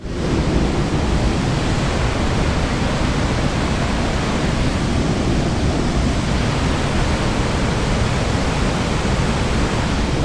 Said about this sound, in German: aber ich habe es mit diesem Aufnahmegerät habe ich es aufgenommen und da hören wir jetzt mal kurz rein, damit ihr einen kleinen Eindruck habt, wie viel Wasser da runterfällt.